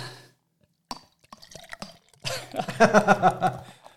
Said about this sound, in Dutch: Ja, ik, eh, ja, ik ondertussen schenk, Laten we gewoon ook inschenken. Ja, ja, ja.